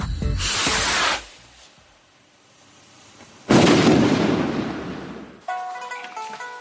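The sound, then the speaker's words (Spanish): Two loud, rushing hisses of firework rockets launching, a short whoosh first and then a longer, heavier roar that fades, with a quiet pause between and music starting at the end. “Esto es lo que hace que un cohete vuele.”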